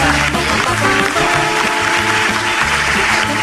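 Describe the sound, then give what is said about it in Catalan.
Loud, sustained applause from an audience at the Rovira i Virgili University's Campus Catalunya in Tarragona, a dense continuous clatter of clapping lasting the whole few seconds, with music and a stepping bass line playing underneath. “tot magnífic, un aplaudiment per recordar.”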